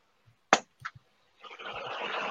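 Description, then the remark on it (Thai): A metal tray of very hot bread slides out of an oven: two sharp clanks, then a steady, rough scraping that runs on to the end, fairly loud. “เฮ้ยมันือเสียงลากอ๋อเสียงลากขนมปังนึกว่าเสียงตบมือว่ะหูเพี้ยนละไม่มีตบมือไปตบได้ยังไงจังหวะมันได้ไง จังหวะแบบหัวเราะแล้วแบบ เออไอเลื่อนถาดขนมปังพอดี”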